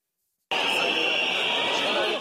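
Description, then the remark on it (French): A crowd of protesters boos loudly and continuously as French President Emmanuel Macron makes his entrance to inaugurate the 60th Salon de l'agriculture, with a sustained high whistle cutting through the roar. The dense noise starts abruptly and holds steady throughout. “C'est sous les huées des manifestants que le président de la République fait son entrée.”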